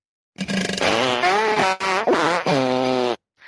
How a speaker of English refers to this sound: Okay, here we go. Farts.